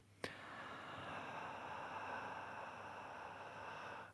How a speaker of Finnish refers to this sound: Voidaan tehdä tässä yhdessä. Hengitä sisään. Myös kuulija voi tehdä mukaan.